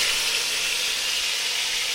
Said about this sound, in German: So, das Öl ist heiß. Ihr hört das, das tanzt. Das ist der Applaus der Köche, sage ich immer.